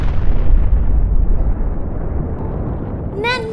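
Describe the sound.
A loud volcanic eruption blast: a deep, continuous rumbling roar that dips slightly after the first second and rolls on, with a brief tonal voice-like sound near the end.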